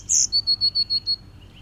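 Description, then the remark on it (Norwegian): A blue tit sings: one sharp, high opening call, then a quick run of six evenly spaced, thin, high-pitched notes, clear and alone with no voices. “det er jo Det er jo en blåmeis.”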